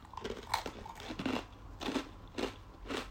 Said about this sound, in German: Gut. Gut. Hm, ich hört jetzt die nächsten 10 Minuten geknusper.